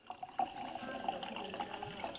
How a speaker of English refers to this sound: Wagner pours a sample of one of his whites, a Riesling.